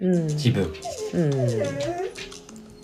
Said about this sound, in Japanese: また犬がうるさいですね。